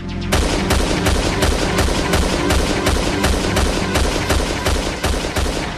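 Rapid, evenly spaced gunshot-like bursts from a cartoon of a police officer practicing target shooting fire without pause over a low, steady droning tone, staying loud and consistent from start to finish. No voices.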